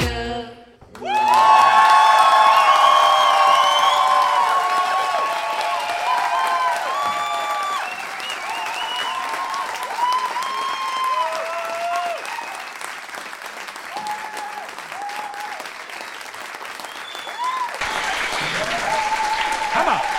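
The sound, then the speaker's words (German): Loud, sustained applause from a concert audience at the Kent Club in Hamburg after the first half of the show, with scattered cheers and high whoops rising over the clapping, continuing steadily for about twenty seconds after a sudden start. “Nach der ersten Hälfte so ein Applaus.”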